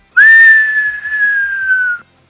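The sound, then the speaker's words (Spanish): A voice imitates the whoosh of air being cut by descending night bombers, a sound likened to a broom in the air: one breathy, whistle-like tone held for about two seconds, gliding slightly downward. It is fairly loud, with no talking. “¿Y sabes por qué decían que eran brujas en escoba, porque cuando, cuando bajaban, se, eh, cuando cortas el aire, no sé si escuchas, eh, han escuchado que se, se siente el”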